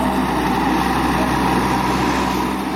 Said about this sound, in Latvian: No lauksaimniecības tehnikas angāra, kur sargā liels sambernārs, saimnieks izved sarkano traktoru.